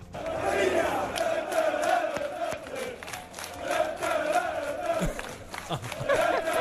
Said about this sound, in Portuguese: com os adeptos do Fulham, que já têm uma música para Palhinha. Eles lá arranjam músicas para os jogadores todos, não é? Palhinha, que ainda este fim de semana marcou um gol espetacular, e vamos ouvir a música.